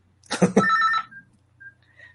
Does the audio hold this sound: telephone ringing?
yes